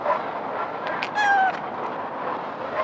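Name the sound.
cat meowing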